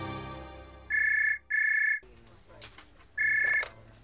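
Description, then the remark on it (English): A telephone rings with a bright electronic trill: two quick bursts back to back, a pause, then a third, loud over a low background murmur. “My concern was interrupted by a phone call.”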